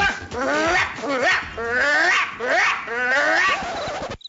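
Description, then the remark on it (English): A voice imitates an aggressive dog, with a few seconds of continuous, loud growling and snarling barks that rise and fall in pitch. “The aggressive bark is.”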